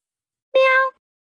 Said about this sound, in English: Dear Rusticasta Versa, yes, I biffed it. And I hope that you accept this meow as an apology.